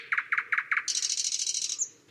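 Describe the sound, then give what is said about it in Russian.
Common nightingale song: four short, evenly spaced opening notes, then a rapid, bright, high-pitched trill of repeated notes running steadily for about a second before stopping. “Из чего состоит песня соловья? Сначала идет такая серия коротеньких звуков.”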